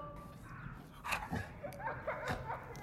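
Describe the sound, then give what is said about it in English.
A puppy whimpers and lets out a few short, yippy barks in bursts over a low background hum. “You stay here, but while you're waiting, maybe you can adjust your attitude, young man, because grumpy puppies do not get pancakes.”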